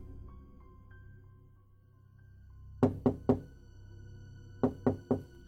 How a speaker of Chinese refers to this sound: 老公，有人敲门，你去看一下。